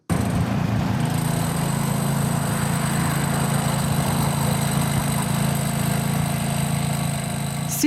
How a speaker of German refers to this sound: gestern übertönt Baulärm der Verkehr an der Kurer Ringstrasse. Es entsteht nämlich ein neues Schulhaus mit einer Sportanlage.